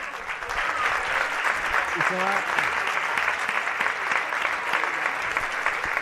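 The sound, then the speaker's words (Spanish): A football crowd at the Álvarez Claro stadium gives a sustained ovation as players Moisés and Fran Núñez leave the pitch, dense applause and cheering holding steady and loud for several seconds, with a brief voice rising out of the roar. “Escuchamos la ovación del Álvarez Claro.”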